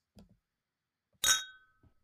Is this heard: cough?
no